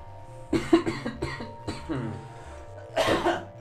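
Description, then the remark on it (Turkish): A person coughs several times in close succession, loud, with a throat-clearing sound and a brief harsher burst of coughing near the end, over a faint steady low hum. “Ufak bir öksürük arası veriyorum.”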